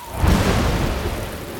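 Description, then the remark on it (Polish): A rumble of thunder rolls over a steady wash of rain, loud, with the deep boom swelling early and then holding as a dense, noisy roar. “Otwórzcie starej babinie i dajcie się jej schronić przed nadciągającą burzą.”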